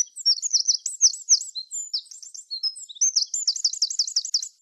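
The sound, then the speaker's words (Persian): Four hungry baby sparrows chirp in their nest high in a plane tree, waiting for their mother to bring food: rapid, shrill, overlapping tweets that run almost continuously, dip briefly midway, then surge again in a fast repeated burst. No one speaks. “لونه خانم گنجیشکه یکم دورتر از اونجا بالای درخت چنار بود چهار تا بچه گنجیشک گرسنه هم توی لونه نشسته بودن و جیک جیک میکردن اونا منتظر مادرشون بودن تا براشون غذا بیاره”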